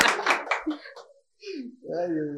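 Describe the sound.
A short burst of applause from a few people lasts about a second, then fades as voices start talking, one with a drawn-out, sing-song tone.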